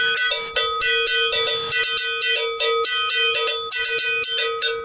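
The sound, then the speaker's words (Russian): An agogo bell struck repeatedly in a quick, steady rhythm, each bright metallic clang ringing briefly before the next hit; fairly loud, with no voices. “Что это такое вообще? Это Агуга Беллс.”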